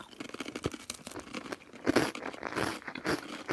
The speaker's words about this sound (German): Aber das sind so, das sind so solche Art von Chips, die so laut knacken, wenn man auf die drauf beißt dass man mhm. da wirklich nichts mehr versteht, wenn man die Serie gleichzeitig anschaut.